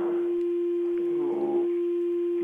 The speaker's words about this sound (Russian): Только чуть-чуть отодвиньтесь от приемника, иначе у нас фонит. Мы вас плохо разбираем.